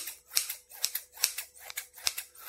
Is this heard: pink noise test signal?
no